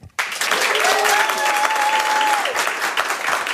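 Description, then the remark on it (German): A live audience of Radio 1 listeners who won tickets, at a live radio show at Bikini Berlin, bursts into loud, sustained applause with a cheering voice or a whistle rising above the clapping for a few seconds before easing slightly. “Sie können uns nicht sehen heute, außer ein paar Radio 1 Hörerinnen und Hörer haben Tickets gewonnen hier fürs Bikini Berlin und sind jetzt mal bitte laut und deutlich zu hören.”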